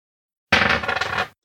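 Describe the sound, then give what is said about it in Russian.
Dice are thrown for a game and clatter and tumble across a hard tabletop in a quick rattling burst lasting under a second, fairly loud, then stop abruptly, showing four. No one speaks. “Я уже подготовил кубики. Бросаю.”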